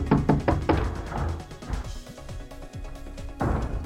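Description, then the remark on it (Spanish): Heavy, rapid, loud pounding knocks on a door come in a burst at the start, then scattered thumps continue over a soft musical background. “Ya mero me botás la puerta hombre”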